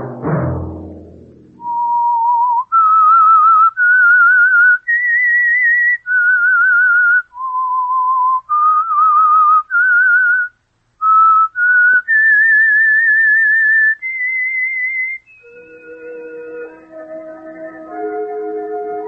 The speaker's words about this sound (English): Let that whistle be your signal for the Signal Oil program, The Whistler, each Monday at 9.